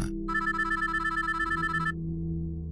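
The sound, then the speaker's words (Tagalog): A cellphone ringtone for an incoming call plays a quick, repeating electronic trill for a couple of seconds, clear, over a low steady hum, then cuts off abruptly. “Hindi niya yon pinansin hanggang sa may tumawag sa cellphone niya.”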